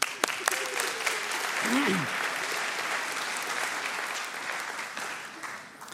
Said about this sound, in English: Can we invite Yvonne up? Give her an applause